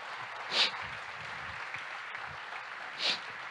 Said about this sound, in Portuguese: Dá um aplauso a Jesus. Glória a Deus.